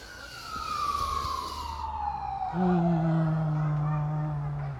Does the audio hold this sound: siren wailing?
yes